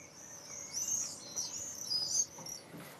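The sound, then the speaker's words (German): A common swift carrying a 1.5-gram geolocator on its back gives shrill, high-pitched screeching calls in a continuous wavering trill while being handled as a researcher carefully cuts the device off, fairly loud, over a faint background hiss with no one speaking. “ein Mauersegler mit einem sogenannten Geolokator auf dem Rücken”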